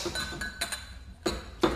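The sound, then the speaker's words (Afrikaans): Glass clinks while a drink is poured: four or five short, bright ringing taps at an uneven pace, fairly quiet, with no one speaking. “Eers skink ek 'n lekker dop vir ons.”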